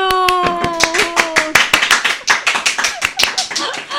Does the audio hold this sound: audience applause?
yes